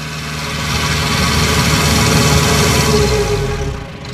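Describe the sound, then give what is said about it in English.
The engine of a canal boat, the Sheldrake 3 of the charity Reach Out Plus, idles steadily, a deep continuous rumble with a faint rhythmic throb, holding at an even level before easing off at the very end. “They take disadvantaged children on canal boat trips.”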